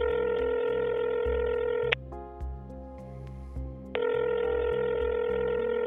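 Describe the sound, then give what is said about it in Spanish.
A telephone in a jail waiting room with many phone posts. A steady dial tone hums, broken in the middle by a stretch of dialing tones as an American number is called, while a low rhythmic pulse runs underneath throughout. No one speaks. “Es el momento de hacer su llamada. Observa que en esa sala de espera hay muchos postes con teléfonos.”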